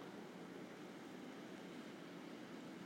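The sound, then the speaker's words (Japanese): A Hankyu 7000-series electric commuter train on a test run rolls past slowly, giving a steady, even wash of rumbling noise that neither builds nor fades, with no voices. “電車が阪急が7000番台や”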